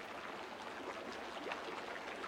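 A steady, muffled rush of running water somewhere inside a dark, seemingly uninhabited house, a soft continuous hiss with faint fluctuations and no voices over it.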